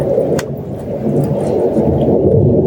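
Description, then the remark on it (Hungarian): A steady, heavy roar of an airplane passing overhead, heard outdoors in a garden in fine weather, loud and continuous with a deep low rumble throughout and no voices. “A repülő megrepül. Nem majd elmegy.”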